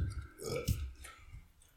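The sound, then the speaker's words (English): A single throaty burp rumbles out low and loud for over a second, with a brief sharper swell near its start and no talking. “You got to burp.”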